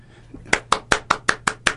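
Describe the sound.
A single person claps seven times in a quick, steady rhythm, a mock round of applause. The claps are sharp and fairly loud, with no talking over them.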